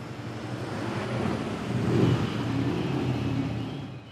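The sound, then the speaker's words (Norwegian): Deep, throbbing engines of gleaming, chrome-polished Harley-Davidson motorcycles rumble steadily in Milwaukee. The sound swells louder around the middle as several bikes roll in and park outside, then settles into a lower idle toward the end. No one speaks. “Det glinser i krum og blankpolerte motorkasser idet flere av dem parkerer utenfor.”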